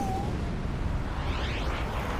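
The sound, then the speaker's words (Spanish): A loud, sustained explosive rumble from one of five explosions in Manhattan, New York City, just before midnight on October 26, 1974, deep and roaring with a faint whooshing sweep through it, and no voices are heard. “Justo antes de la medianoche, Cinco explosiones acuden a Manhattan.”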